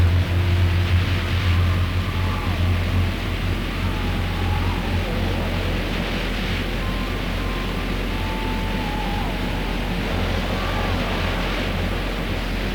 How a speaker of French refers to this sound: Dehors, le vent a secoué, agité, tourneboulé les rêves d'Amsaki et le bocal de Rusto. C'était une vraie symphonie derrière les volets. Des craques, des wouh, des pchou.